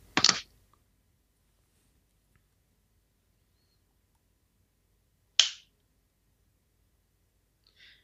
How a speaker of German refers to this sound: Ich habe versucht, meine Wasserflasche geräuschlos abzustellen.